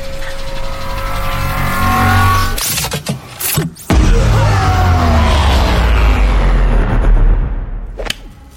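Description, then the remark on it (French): A quantum alternator machine is activated, powering up with a loud, continuous roaring whir, broken by sharp whooshing bursts partway through, then surges again into a heavy rumbling drone with another brief swish near the end. “Et qu'est-ce que vous comptez faire avec cet alternateur quantique Transformez-le en vodka Attention, Jack Je vais activer la machine.”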